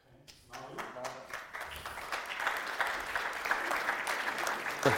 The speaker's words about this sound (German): Ja, das sind die wenigen Milliardäre, die hier klatschen. Ja, ja. Jetzt haben, jetzt haben, nur die Smarten geklatscht.